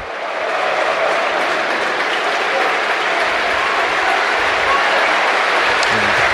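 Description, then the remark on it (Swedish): A large crowd at Cardiff City Stadium rises and applauds steadily in tribute to the late Peter Whittingham, the club's number seven, a dense, sustained wall of clapping that swells in at the start and holds loud throughout, with faint voices mixed into the din. “And once again, Cardiff City Stadium rises in unison mourn the loss, and salute the achievements of a great, perhaps the greatest, to ever wear a club shirt, uh, number seven, Peter Whittingham.”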